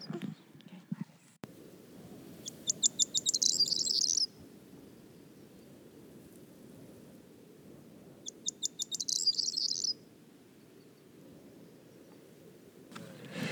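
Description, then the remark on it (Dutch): A rare bird, with only about 40 breeding pairs left in Flanders and known for a call likened to a rattling bunch of keys, gives a dry, rattling call twice, each burst a quick series of sharp clicks accelerating into a jangling trill, over a steady low outdoor rumble. “Er zijn maar 40 koppels niet meer in Vlaanderen. En gehoord, ze noemen die de rammelende sleutelbos.”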